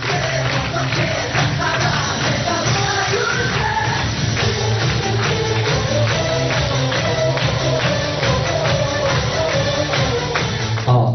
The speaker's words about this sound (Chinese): 都非常不错的。再给第七组掌声鼓励一下，太棒了啊！